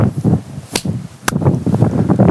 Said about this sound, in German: nochmal klatschen, nur so das zur Sicherheit. ja, okay, ich klatsche nochmal.